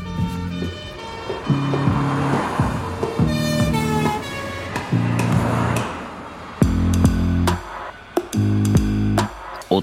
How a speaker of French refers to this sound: L'instant d'après, les policiers l'embarquent dans une voiture qui part en trombe, toute sirène hurlante.